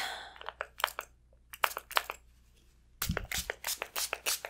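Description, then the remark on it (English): A spray bottle spritzes repeatedly onto a person's face, with short hissy mist bursts in small clusters, then a quicker run of sprays toward the end, with no talking. “I'm gonna just spray this on your face.”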